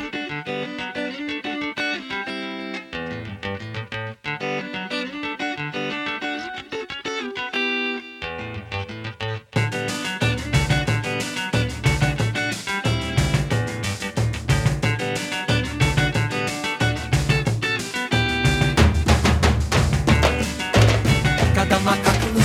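A recorded song's instrumental intro plays, starting with a lighter, sparser arrangement before a full band with a driving, steady beat bursts in about halfway through and stays loud.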